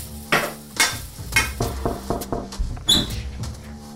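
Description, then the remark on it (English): Sausages sizzle in a pan with a steady crackling hiss, broken by several louder bursts of spitting and scraping roughly every half second. No one speaks. “That's me, nervously whistling while I finish cooking sausages.”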